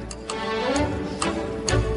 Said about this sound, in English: I hear the music in the background.